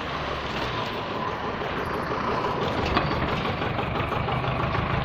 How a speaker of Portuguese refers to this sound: Uh, caminhão.